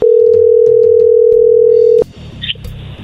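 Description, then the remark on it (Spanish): A steady, loud telephone dial tone, heard while placing a call to someone again, holds a single unbroken pitch for about two seconds, then cuts off abruptly, followed by faint clicks and low line noise. “Claro, pues vamos a llamarle de nuevo”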